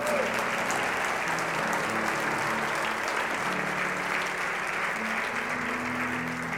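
An audience applauds steadily during a Spanish-language sermon on Bible verses, a dense wash of many hands clapping at an even loudness for several seconds, with a faint murmur of voices mixed underneath.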